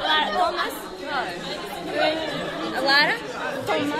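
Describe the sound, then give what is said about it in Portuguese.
Many voices talk over one another in a lively, overlapping babble at a high school entrance, steady throughout, with occasional brighter exclamations rising out of the crowd chatter. Names, nervous laughter and greetings in Portuguese, Polish and English mix loudly. “As conversas vão se cruzando bem alto, misturam-se os nomes, os risos nervosos, os olás em português, polaco e inglês.”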